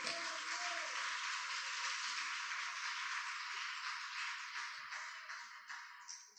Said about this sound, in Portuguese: Aplauda o Senhor, queridos.